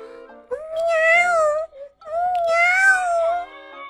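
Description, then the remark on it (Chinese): Two drawn-out, high-pitched meows, each lasting over a second with a short pause between them, fairly loud and alone, sounding like a voice imitating Mia the cat, now a tiny kitten, in an attic. “只见阁楼上又一道亮光闪过，哎呀，猫咪米娅现在也变成了一只小小猫，喵”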